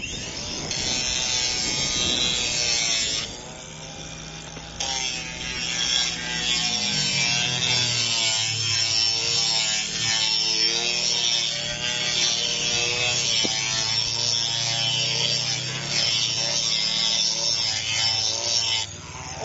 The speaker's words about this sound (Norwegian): Så er det bare fram med vinkelsliperen og give løs.